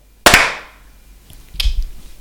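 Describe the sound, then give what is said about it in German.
A group claps once in unison on a count of three, a single sharp, loud crack that rings out briefly, followed about a second later by a fainter, scattered rustle of hand sounds. “Und ähm, jetzt kommt noch mein Klatsch-Countdown.”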